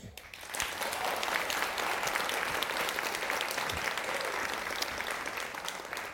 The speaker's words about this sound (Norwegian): En stor applaus for vår eh, returnerende husgjest, som jeg velger å kalle deg nå,